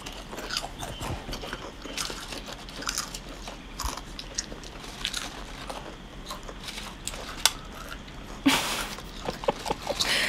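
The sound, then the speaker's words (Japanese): Crisp crunching of someone munching potato chips from a just-opened bag of Petit brand chips, a steady run of dry, brittle bites and chewing with a louder crackle near the end, no voices. “先ほど開けたプチをひたすら頬張るというシーンですね”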